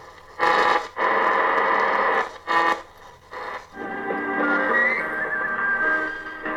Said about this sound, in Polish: Chyba to jest chińskie radio międzynarodowe.